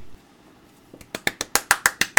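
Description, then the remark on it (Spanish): Sharp, crisp claps in a quick, steady rhythm, about ten hand strikes starting softly and building louder over a couple of seconds, with no talking. “Aplausos.”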